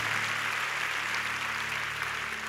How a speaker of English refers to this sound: Plus all our cell group leaders and pastoral staff who have been faithfully teaching the word of God to all of us, plus all the church, church workers. Let's give all them a big round of applause.